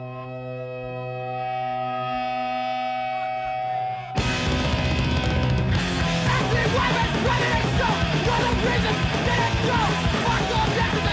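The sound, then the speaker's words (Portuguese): A music track from the record label Gloom Records opens with a sustained, droning chord, then about four seconds in bursts into loud, dense, full-band playing that stays intense to the end, with no talking. “E, e, se calhar é, é mais fixe a gente ouvir a música do que ouvir-me aqui a falar.”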